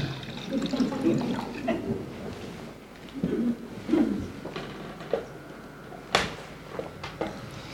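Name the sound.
person drinking water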